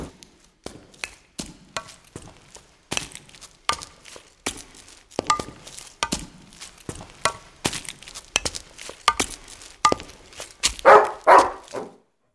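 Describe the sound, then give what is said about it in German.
A seven-year-old Labrador at an old mill in Mörsdorf barks over and over in short, sharp bursts, fairly loud, at an uneven quickening pace, with a couple of fuller barks near the end and no talking. “Der siebenjährige Labrador gehört zu Ingeborgs Leben in der alten Mühle in Mörsdorf.”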